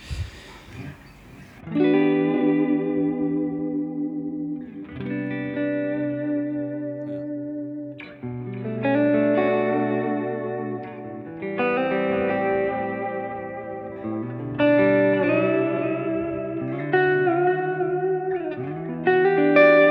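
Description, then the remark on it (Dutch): Clean electric guitar plays sustained chords and ringing notes in several phrases, each trailing into soft delay repeats; steady, moderately loud, with no talking. “Maar juist clean, met eh, een beetje delay of zo.”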